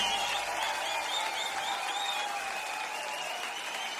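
Sustained audience applause, a dense steady wash of many hands clapping at an even, fairly loud level throughout, with no voices standing out.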